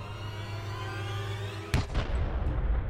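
A single sharp gunshot cracks out very close to a hunting camp during a week-long hunting trip, cutting through a steady low hum, then leaves a rough, rumbling decay trailing off afterward.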